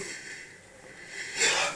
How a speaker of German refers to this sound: ich musste kurz gähnen, tut mir leid. Äh, Digga, es ist nicht so früh am Dienstag. Und du gähnst hier rum.